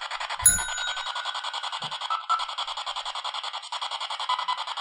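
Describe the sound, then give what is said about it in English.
A single tap on a tabletop bell in the center of a table gives one bright ding that rings out for a second or two, heard over a steady, rapidly pulsing background hiss. No one speaks. “Uh, if you really want to impress us, could you uh, touch that bell? It's in the center of the table, and all you have to do is this.”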